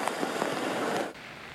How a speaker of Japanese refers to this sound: 道内各地で局地的な大雨に見舞われた今月5日釧路では瞬く間に道路が冠水普段あまり水害のない場所で被害が相次ぎました